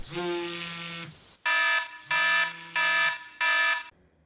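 An electronic alarm clock rings loudly in repeated harsh buzzing bursts, a long first blast followed by four shorter pulses with brief gaps between them, with no voices.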